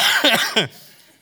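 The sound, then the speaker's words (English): A person coughs, a short run of two or three quick, rough bursts lasting under a second, then the sound drops away into near silence. “but I, don't get me coughing.”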